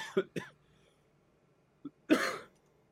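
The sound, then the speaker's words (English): Two quick, sharp bursts and a soft click lead into a single loud, breathy sneeze that rises and trails off, with no talking over it. “Is that what is that how Italians bless each other on the when they sneeze?”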